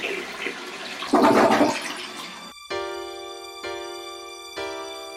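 A toilet flushes with a loud, rushing swirl of water for about two and a half seconds, then gives way to three sustained, bright musical tones struck one after another.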